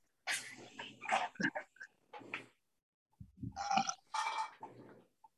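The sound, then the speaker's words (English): A series of loud burps, two long raspy belches separated by a short pause, with a lower gurgling grunt at the start of the second one. “I like burping.”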